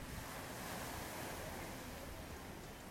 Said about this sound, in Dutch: Hopelijk hoor je nog heel eventjes het lekkere geluid van de zee. Ik zal heel even stil zijn.